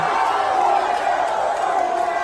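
A huge stadium crowd at the Iowa State–Iowa football game chants "USA" in unison as Donald Trump walks into the stadium, a dense, steady roar of many voices that stays loud and continuous throughout, with no single voice standing out.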